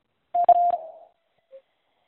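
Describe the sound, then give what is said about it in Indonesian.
A short electronic answer-prompt tone in a quiz sounds steadily for under a second with a couple of clicks, trailing off, followed by a brief faint blip a moment later. No voices are present. “Silakan jawab setelah nada berbunyi.”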